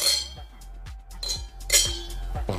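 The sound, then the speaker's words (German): Several glasses clink together in quick, bright succession, fairly loud, with voices murmuring in the background during a toast. “Prost, danke.”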